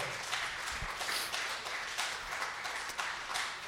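A church audience in Caguas applauds the Lord during a morning service, a dense, steady wash of many hands clapping together, sustained without pause and with no voices standing out.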